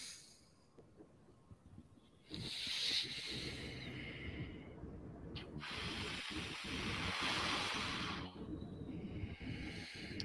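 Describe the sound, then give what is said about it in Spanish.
Two long, deep breaths taken slowly, a drawn-in inhale followed by a long airy exhale, each lasting several seconds with a rushing, hissing texture. “Inhalas, inhalas, exhalas, inhalas. Pero hazlo más lento, no se sujete, no se sujete más, lento, más, lento.”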